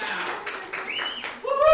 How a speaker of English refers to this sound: Those of you who've been in Delirio, raise your hand if you've been to some of the Delirio screenings. All right. Clap if you liked it. Yeah.